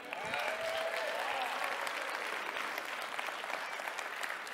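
An audience applauds steadily for the person producing the live stream, a dense wash of many hands clapping at an even level throughout, with a brief murmur of voices near the start.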